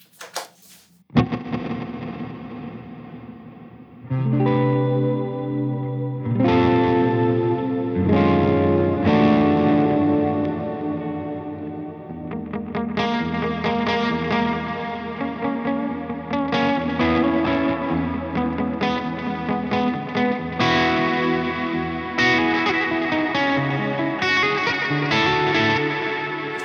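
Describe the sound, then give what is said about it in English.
A sustained, heavily processed guitar-like instrument run through a combined reverb and delay effect called Shoegaze, with zero pre-delay. Chords smear into a dense, growing wall of sound with shimmering high overtones and steady loudness, no voices. “Uh, it's a it's a verb, but it's also a delay.”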